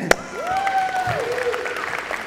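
An audience applauds steadily throughout, a dense wash of clapping with a sharp clap near the start and a rising, sustained whistle or cheer riding over the crowd noise.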